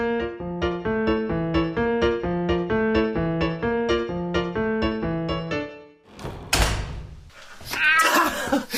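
A rhythmic pattern of repeated tonal notes plays for several seconds, then a thump and a burst of noise, followed near the end by a single short cat meow.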